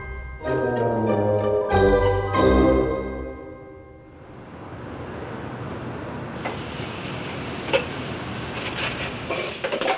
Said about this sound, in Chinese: 妈妈，我来帮你洗碗。